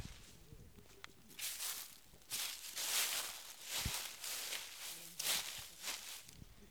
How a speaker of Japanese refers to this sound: すごいいっぱいねあるんですよ。紅葉がすごいいいよねこの足音ね。